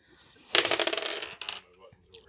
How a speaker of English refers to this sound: So you got two ones, and then you rolled two twos, and this time you rolled three three or two threes. Very talented at rolling low numbers.